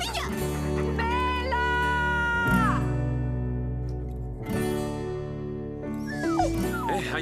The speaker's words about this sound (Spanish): perro. Parece que necesita ayuda.